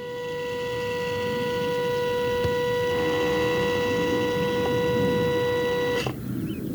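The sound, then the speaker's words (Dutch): An automated CO2 flux chamber, a half plastic dome on a greenhouse-gas measurement plot that traps CO2 produced in the soil, opens with a steady, loud mechanical motor whine that holds an even pitch for about six seconds, then cuts off with a short click, leaving low outdoor rumble. “Opvallend in het meetplot zijn die fluxkamers die CO2 meten halve plastic bollen die af en toe open en dan weer dicht gaan. En als er eentje open gaat, dan klinkt dat zo.”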